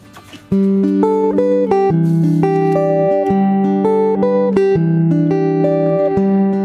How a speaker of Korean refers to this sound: 통기타 라이브예요.